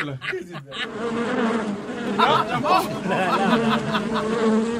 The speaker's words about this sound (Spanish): Esas son las moscas, el olor a meado que tiene.